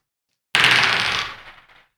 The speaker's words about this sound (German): Das sind Story Cubes. Ähm, ja, wie immer, ich gebe euch die drei Würfel. Ihr könnt würfeln und mit diesen Icons, die ihr bekommen habt, ein Geschichtlich erzählen